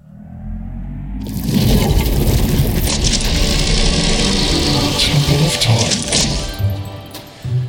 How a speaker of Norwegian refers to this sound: Vi har åpnet altså eh, huledøren til Temple of Time, som du hørte der. Som minner litt om den eh, Fangene på fortet-døra, når den går opp mm. der.